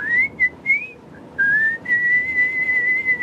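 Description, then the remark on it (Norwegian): A man whistles a tune, a bright, piercing melody with a few short notes followed by longer sustained tones, loud and alone with no talking. “Rett foran meg står han og plystrer og holder på så det freser i ørene mine.”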